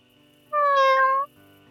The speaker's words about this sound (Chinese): 你不是那天在水果店的那只猫咪吗？怎么跑来这了？